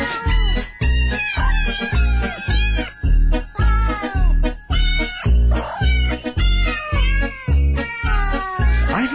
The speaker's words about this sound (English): I don't believe there are any cats in this recording. I was promised cats. Are these actual cats? I think they're cats that are being assaulted in some sort of unholy fashion. I think they're being squeezed.